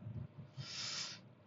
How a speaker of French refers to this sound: Oh, pardon pour le bruit de bouche.